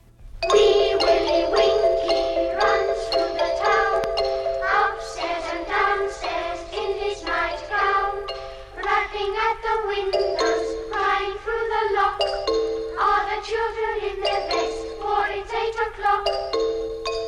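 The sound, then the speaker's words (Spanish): The children's song Wee Willie Winkie from Carl Orff's music for children, played on xylophones with a wooden block keeping the rhythm, full of quick, ringing mallet notes in a lively, bouncing rhythm that continues steadily throughout, with no voices. “Los instrumentos se usan para llevar el ritmo, como en la canción de Wee Willie Winky, que utiliza gilófonos y caja de madera.”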